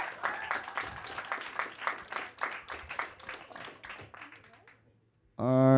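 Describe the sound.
A crowd applauds with dense, steady clapping for several seconds, tapering off to a brief silence before a voice abruptly starts speaking up close.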